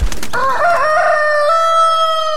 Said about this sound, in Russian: Слышите? А вот и наш петушок прилетел Да-да, тот самый знаменитый гальский петух его можно встретить повсюду во Франции.